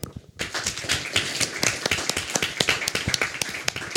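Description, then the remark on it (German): An audience at an event held in a press club's room breaks into applause to thank the press club, after a brief quiet moment, a dense, steady patter of many hands clapping at moderate loudness that carries on without letting up. “Und nochmal dafür einen herzlichen Applaus.”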